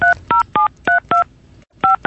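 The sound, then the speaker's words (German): Telephone keypad tones being dialed for a prank call to somewhere in Bavaria, Germany: about seven short, clear two-tone beeps in quick, slightly uneven succession, with a brief pause before the last couple. No one speaks. “Ich rufe irgendwo an in, ähm, in Bayern.”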